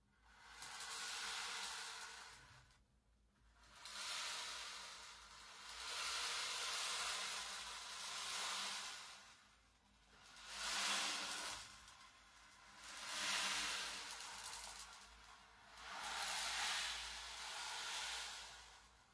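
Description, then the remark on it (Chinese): A sleep-aid machine's imitation ocean waves: a soft, hissy rush of rolling beads that swells and fades in steady surges about every two to three seconds, with no voices. “这像海浪吗？你们告诉我，这像吗？”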